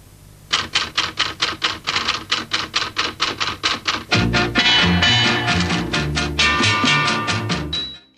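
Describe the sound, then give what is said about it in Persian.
A rapid, steady run of crisp typewriter keystrokes clacks alone at first, then continues as orchestral music swells in beneath it, ending with a bright carriage-return bell ding; the typewriter sound is used within a composed music arrangement. “استفاده از صداهای طبیعی توی کاره مثل مثلا صدای شلیک صدای دویدن اسب حالا توی موسیقی که تنظیم کرده صدای مثلا ماشین تایپ هم حتی وجود داره”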